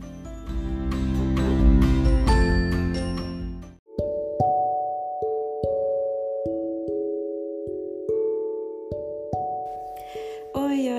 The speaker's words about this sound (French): Euh, j'ai encore la chair du poule à chaque fois que j'entends cette chanson. J'ai entendu cette chanson quand mon premier grand amour a rompu avec moi et c'était très mauvais pour moi et cette chanson m'a aidé à gérer ma douleur